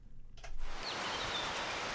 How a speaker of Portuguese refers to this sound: Por esta altura, as quedas de água, o canto dos pássaros e o sino da igreja quebram o silêncio de Piódão, o largo onde quase tudo acontece nesta aldeia histórica já não tem carros e tornou-se o grande cartão de visita.